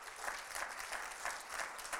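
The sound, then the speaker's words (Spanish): An audience at Heart Revolution Church applauds God together, a dense wash of many hands clapping with a loose, regular pulse about three beats per second, fairly soft and steady with no voices. “Yo no sé tú, pero eso es para que le demos un aplauso a Dios, porque es el favor de Dios.”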